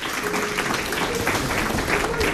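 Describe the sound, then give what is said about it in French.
An audience at a conservatoire claps steadily, a dense, continuous wash of many hands at a fairly loud, even level throughout, with no one speaking over it. “Vous pouvez encore aussi applaudir tout le monde parce que c'était bien.”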